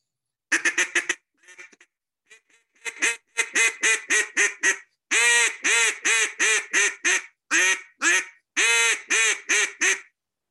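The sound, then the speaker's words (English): A small cane duck call, used for duck hunting, is blown, producing a long run of loud, raspy quacks in uneven bursts, some short and choppy, others drawn out, imitating a duck's calling with no talking. “I'll kill plenty of ducks with them little cane calls.”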